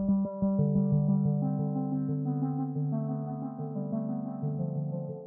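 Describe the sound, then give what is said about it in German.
A synthesizer patch built from two wavetable oscillators plays a bright, metallic tone like a steel drum: quick repeated notes at first, then ringing, overlapping pitches that sustain and blend into a shimmering melody. No voices. “Das klingt so ein bisschen wie so, ein, äh, wie so eine Steel Drum.”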